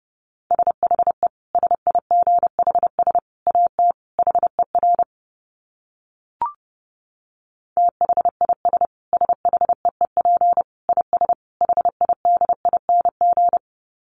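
Fast Morse code at about 30 words per minute: a steady mid-pitched beep keyed into rapid dots and dashes, two long runs separated by a pause with a single soft click.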